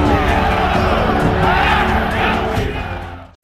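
A large crowd of Portuguesa football fans roars and shouts together, chanting that the team is champion, in a loud, sustained wall of cheering and chanting voices that swells and then cuts off abruptly near the end.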